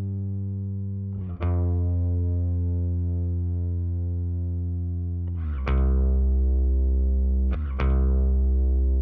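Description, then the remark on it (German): A sustained bass tone, compressed by up to 15 to 20 dB with 15 dB of make-up gain, holds a steady, even level, with three brief plucked attacks adding bright transients before settling back into a smooth, dense low end. “Und jetzt sollte der Bass deutlich stabiler stehen.”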